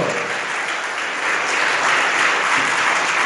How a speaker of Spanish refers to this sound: Déselo al Señor, por favor, ese aplauso.